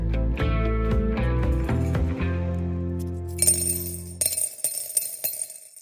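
Coins clink and jingle in a bright cluster of metallic rattles during the second half, after a low, sustained tonal hum fades out; no one speaks.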